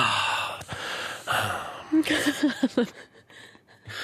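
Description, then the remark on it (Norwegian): Breathy, rhythmic gasping from a pop song, a run of short sharp intakes over a bright music bed, moderately loud. “Nei, og du, den pustinga du snakker om, det er i så fall det er snakk om den pustinga her.”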